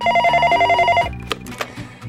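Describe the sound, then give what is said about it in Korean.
A telephone rings on the radio show Gayo Gwangjang with a rapid, warbling electronic trill for about a second, fairly loud, then stops as background music continues with a few short knocks. “네네, 이기광 전화 받았습니다.”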